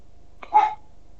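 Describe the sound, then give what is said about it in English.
A single short dog bark rings out once, clear, with quiet before and after and no talking. “Even the dog agrees.”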